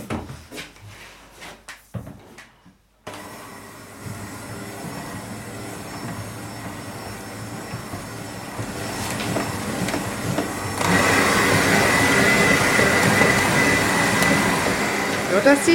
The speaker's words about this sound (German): So, Butter und eine Prise Salz. Gut, dann gehe ich wieder rüber zum Mixer. Genau. Einmal rühren.